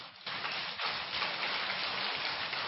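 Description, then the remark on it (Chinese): A crowd breaks into applause after a brief quiet start, settling into a steady, dense patter of many clapping hands that holds evenly to the end, with no voices over it. “啊，现在鼓掌声音多一点了，是假装听懂的。”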